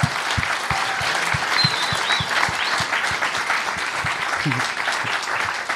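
Steady audience applause for the person who organized the day's event, a dense wash of many hands clapping at an even level for several seconds, with a few sharper individual claps standing out and no talking over it.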